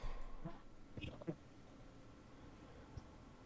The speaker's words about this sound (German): Das war gerade ein Ton äh, von meinem Stuhl.